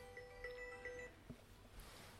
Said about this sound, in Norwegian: Nå ringer det her, eller? Ja. Ja, det er bare å ta telefonen.